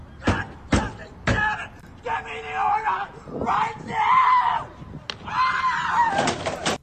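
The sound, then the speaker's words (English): A few loud, heavy bangs of a man pounding on his own car in public, followed by him yelling and shouting angrily between more scattered thumps, harsh. “So he he starts pounding on his car. Then he knocks these these crates over filled with something.”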